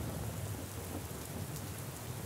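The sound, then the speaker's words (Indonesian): Steady, dense rainfall hisses without pause, with a deep low rumble of thunder rolling underneath. No one speaks; the storm fills the whole moment at an even, moderate loudness. “Hujan hari ini dan juga untuk hujan hari esok yang mungkin akan datang kembali.”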